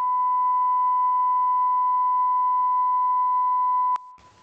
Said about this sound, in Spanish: Pitido otra vez. Mira, esto ya se está pasando de pitidos. Stop. Sí, hay eh, mucho pitito veo yo aquí. Mucho pitidos estoy viendo.